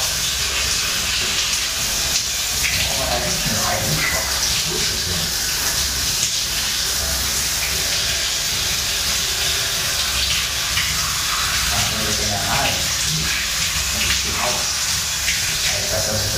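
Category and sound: household object, water running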